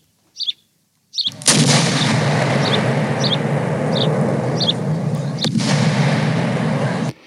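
A few small bird chirps, then a loud cannon blast opens into a long roaring rumble with a second boom near the end, while faint chirps keep sounding over the din.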